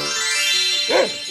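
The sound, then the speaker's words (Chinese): A single short dog bark rises and falls in pitch near the end, sounding over a steady, bright background of music with no talking. “那条眼睛有茶杯那么大的狗出现了。”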